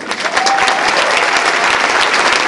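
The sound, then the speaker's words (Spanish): A crowd applauds loudly and steadily, dense clapping continuing for a couple of seconds without pause, with a faint whistle briefly audible early on. “Desen un aplauso por ese problema.”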